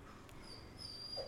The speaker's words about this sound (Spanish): Hay una tensión que invita a dialogar, mientras la perra también está tensa, llorando. Llorando aunque duela, porque duele.